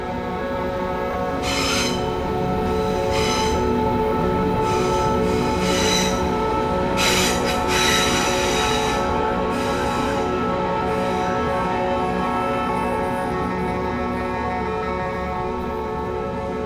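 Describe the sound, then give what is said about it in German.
An S-Bahn commuter train rolls through a station platform, a steady loud rumble with ringing metallic wheel tones and hissing bursts in the first half, continuous throughout, with no voices. “Das hilft, den Lärm der Züge zu ignorieren.”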